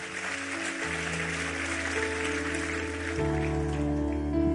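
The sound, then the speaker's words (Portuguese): An audience applauds God steadily during worship, a dense, continuous patter of clapping over sustained instrumental chords that shift a couple of times, growing slightly louder toward the end. “Aplauda ele.”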